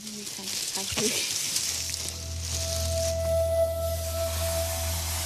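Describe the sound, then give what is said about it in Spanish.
A steady hiss of gas rushing into 10 balloons, being inflated to carry bags of leaflets over North Korea, runs for the whole stretch, over a low mechanical hum and a faint thin whine. “Liminbok hincha 10 globos.”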